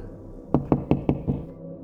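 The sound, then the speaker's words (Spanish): Five firm knocks on the door of a very large house in a steady, evenly spaced rhythm, clear, with no voices, just a faint background hum around them. “Estaba en una casa muy grande, yo solo y alguien tocaba la puerta.”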